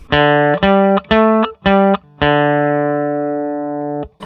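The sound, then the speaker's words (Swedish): Four short, crisply plucked string notes in quick succession, then a fifth that rings out and slowly fades over a few seconds, fairly loud with no voices. “sen ett litet lyssningstips är att lyssna på precis själva anslagsljudet för det är där den största skillnaden eh, på olika strängar är.”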